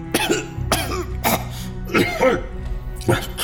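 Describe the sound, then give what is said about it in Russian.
A woman coughs repeatedly in a series of harsh, throaty bursts, some almost like throat clearing, fairly loud, with no talking, while packing medicines into a bag and leaning on a counter. “Она, собирая медикаменты в сумку, закашлялась и оперлась на стойку.”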